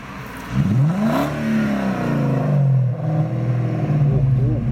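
A BMW 7 Series E38 car engine revs, its pitch climbing in a quick surge and then holding at a steady, throaty idle-to-mid drone for the rest of the moment.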